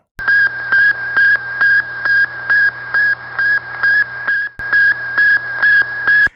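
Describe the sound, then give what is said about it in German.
The radio signal sent by Sputnik, the Russian satellite launched into space: a steady run of short, high-pitched electronic beeps at an even, quick rhythm over a constant low radio hum, briefly cut off once partway through, with no voices. “Das war der Satellit von den Russen, der quasi in den Weltraum geschossen worden ist. Und der hat dieses Funksignal gesendet”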